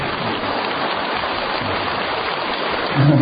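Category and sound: crowd, audience applause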